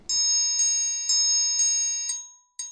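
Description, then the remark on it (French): A triangle is struck repeatedly at a steady rhythm, about six bright metallic strikes each ringing on with a shimmering sustain, heard alone without any talking. “Euh, eh Et ben, par exemple, un triangle.”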